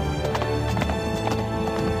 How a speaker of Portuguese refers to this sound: Vocês cavalgam em meio às planícies e colinas, passando por bosques, vocês contornam o condado e vários dias depois vocês atravessam uma região montanhosa. Vocês guiam seus cavalos com cuidados por lá.